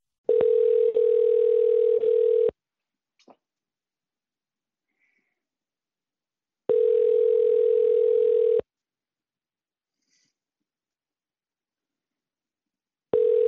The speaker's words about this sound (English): too many rings. Even for a voicemail, it's too many rings. I would have hung up already.